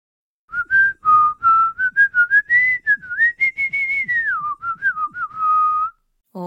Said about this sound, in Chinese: 哦，是迪士尼第一个黑白有声动画的作品《汽船威力号》，米老鼠开着船吹口哨的旋律